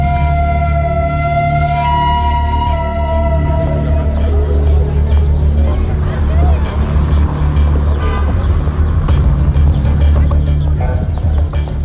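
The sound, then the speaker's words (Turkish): Sultanahmet Square, crowded with tourists and traffic: a constant rumble of engines, a brief horn-like tone early on, and indistinct crowd chatter mixed with what sounds like clip-clopping hooves, all loud and steady. “turist kalabalıklarıyla dalgalanan Sultanahmet Meydanı'nın gürültülü yaşamından sıyrılarak”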